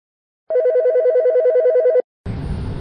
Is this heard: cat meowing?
no